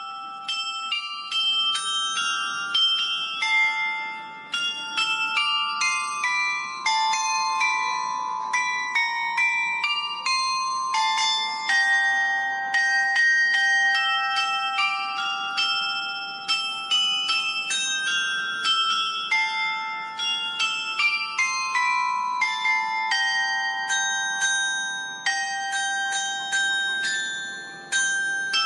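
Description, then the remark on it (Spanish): A carillon rings out a continuous melody, many bright bell tones struck in quick succession with overlapping, sustained resonance, steady and fairly loud throughout with no voices. “pues nos ha parecido que lo mejor que podemos hacer es poner una grabación para que ustedes puedan escuchar cómo suena un carillón.”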